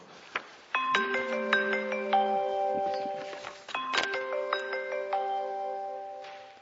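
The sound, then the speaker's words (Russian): A phone rings with a bright, melodic chime tune that plays twice in quick succession, each phrase of layered ringing notes sustaining and fading. It is clear, with no talking. “Я перезвоню, перезвоню.”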